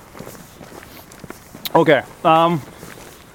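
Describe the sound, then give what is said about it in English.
Soft, steady rustling and light thumps of a backpack worn on a person's back, jostling with walking steps, quiet, while a voice briefly speaks a couple of words. “That's because I'm, I'm wearing a backpack.”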